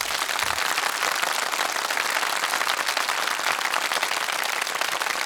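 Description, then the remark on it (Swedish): A burst of applause in a studio, welcoming a guest, dense and steady, with many hands clapping together at an even loudness for about five seconds and no voices over it. “En stor applåd!”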